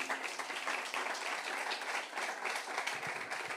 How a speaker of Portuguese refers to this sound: Eu posso ouvir um amém? Diga eu recebo e dê um aplauso para Jesus.